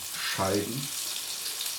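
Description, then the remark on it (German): Peeled orange slices sizzle as they fry in hot olive oil, a steady crackling hiss that runs the whole time, with a brief low tonal murmur rising over it early on. “Ihr hört schon Knusp äh, Spritzen und Brutzeln gebe jetzt die Orangenscheiben”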